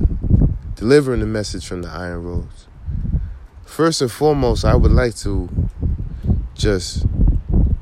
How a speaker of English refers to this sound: apologize for the wind that um, you will hear on this recording